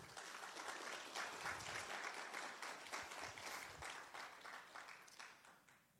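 A crowd applauds steadily, a dense wash of many hands clapping at a fairly even level that tapers off slightly toward the end.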